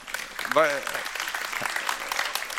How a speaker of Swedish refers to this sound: Så glad för vår syster där som har fyllt 90. Eh, ska vi ge henne en applåd?